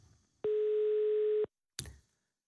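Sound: telephone line tone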